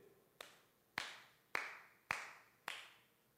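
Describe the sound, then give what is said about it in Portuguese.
Five slow, deliberate hand claps at an even pace, each sharp and ringing briefly before fading; the first clap is noticeably softer than the rest. No one speaks. “Palmas, sacrifício humano.”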